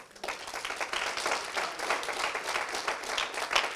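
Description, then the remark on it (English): A church audience claps steadily for a few seconds as a clap offering to the Lord, a dense, even patter of many hands that rises quickly and holds without pause, with no voices standing out. “And let's let's give the Lord a good clap offering.”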